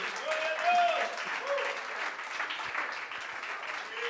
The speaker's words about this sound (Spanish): Alguien que lo crea, que le aplauda con más júbilo y con más alegría.